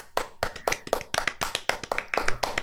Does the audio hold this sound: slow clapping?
yes